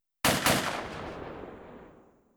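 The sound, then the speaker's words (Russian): Two loud blasts from a double-barreled shotgun fire in quick succession, the second hard on the heels of the first, followed by a long booming echo that slowly fades away. No voices are heard. “решил воспользоваться стоящей в углу двустволкой.”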